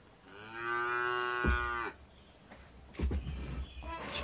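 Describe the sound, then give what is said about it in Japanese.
A single long, low cow moo swells and holds for over a second, clear, used to greet people who arrive, followed by fainter rustling and shuffling noises with no one speaking. “来ていただいた方は、牛の鳴き声で出迎えさせていただくというのをやっております。”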